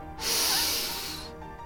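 A single steady burst of Axe Africa aerosol deodorant sprayed in a bedroom, a bright hiss lasting about a second before cutting off, with faint room tone around it and no voices.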